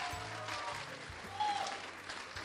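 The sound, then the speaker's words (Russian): A large audience applauds loudly and steadily, greeting the Big Children's Choir of Russian Television and Radio (VGTRK) on the stage of the Mayak radio station's summer studio, a dense wash of clapping with a few cheers and whistles rising above it, swelling briefly about halfway through. “Поприветствуем громко-громко! Ура!”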